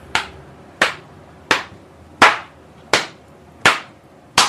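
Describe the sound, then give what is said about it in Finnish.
A whip lands on a bound person seven times in a steady rhythm, each blow a sharp slap that dies away quickly, with no voices in between. “Kutittaakohan tämä raippainaa?”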